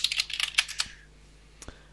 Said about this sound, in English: So we can all hear you typing. That's alright. On your no, old school IBM keyboard or whatever it is. It's a weird old keyboard that I think I picked up at some point. I think I click, click, click, click.